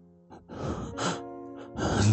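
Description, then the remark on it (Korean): Heavy, ragged breathing from a man, several loud breaths in quick succession, each a rough, airy rush that grows stronger toward the end, with no talking. “그의 숨소리는 점점 가파졌다.”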